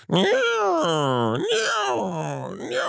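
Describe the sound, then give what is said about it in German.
A voice imitates the whir of a squeeze-dynamo flashlight being charged at night in a hallway: a loud, continuous groaning drone that swoops up and down in pitch several times over about three seconds. “Das Problem war, dieses Aufladengeräusch ist ganz schrecklich gewesen.”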